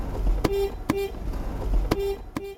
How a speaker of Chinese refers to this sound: 阿伯开车出门了，沿途会这么按喇叭，为什么他要一直不断的叭叭叭？主要是呢，要提醒民众说：“哎，我来了，我现在就要开往恒春。如果你有什么事情或要交代我做什么事，你现在可以拿出来。”